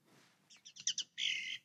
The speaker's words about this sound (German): Vogelgeräusche. Hier, sechs Stunden Waldgeräusche mit Vögel zur Entspannung.